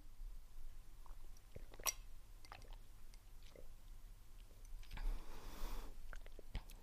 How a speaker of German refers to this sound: so, ich habe immer noch ein bisschen ab und zu so ein Frosch im Hals. Ich nehme noch mal meine fünf Schlucke Wasser. Moment.